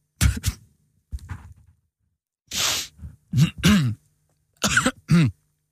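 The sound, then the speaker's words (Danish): Someone coughs and clears their throat in several separate bursts spread across a few seconds, with short silent gaps between them and no talking. “Jeg skal lige vel være med at hoste.”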